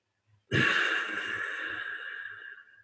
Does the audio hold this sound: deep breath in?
yes